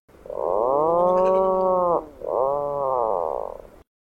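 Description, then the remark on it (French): Two drawn-out, creaky groaning calls from a cliff-nesting seabird that breeds in large colonies on clifftops and digs burrows, the first longer, the second briefly following, loud, each with a rasping, mechanical quality, then silence. “Il est alors possible d'entendre leurs cris, brefs et plaintifs, qui s'apparentent un peu à une porte qui grince ou à une tondeuse qu'on entend au loin.”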